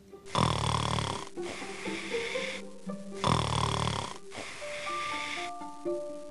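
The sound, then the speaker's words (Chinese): Two loud, rough snores in a slow rhythm, each followed by a softer, breathy exhale, with a light tinkling melody coming in over the second half. “因为住在天上的神仙在呼呼大睡，他们的呼噜从云中穿过来到地球上，那就是为什么会打雷。”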